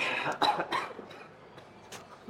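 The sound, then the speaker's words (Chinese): A few short, harsh coughs break out in quick succession, followed after a pause by one more fainter cough, with no talking around them. “这一集我要一直放点点点，因为要消音掉你的咳嗽。”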